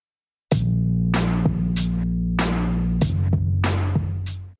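A refrigerator hums with a steady, loud low drone, broken by a series of sharp clicks and rattling bursts that fade quickly. The pitch of the hum shifts slightly partway through.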